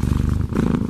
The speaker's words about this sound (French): Non, parce que bah, c'est un chat avec ses ronrons.